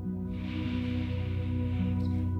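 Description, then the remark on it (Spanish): A long, steady inhale through the nose, a soft airy rush that starts after a brief pause and lasts a couple of seconds over a sustained, low musical drone. “Y comienza a inhalar”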